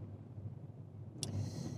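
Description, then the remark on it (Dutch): Steady low road and engine rumble fills the inside of a moving car on the way to a training course, then a sharp click near the end gives way to a faint high-pitched ringing. No one speaks. “Dus ja, daar zit ik dan in de auto onderweg naar de opleiding.”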